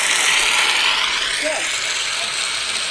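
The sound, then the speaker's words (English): A crowd applauding Bush steadily, a dense, continuous patter of many hands clapping at once, fairly loud and even throughout, with no voices standing out. “So, so as you can hear, the, you know the crowd is clapping for him, and they're all, "Oh, Bush is Bush is so cuddly and nice and good, and he's been non-political since he finished uh, finished in office."”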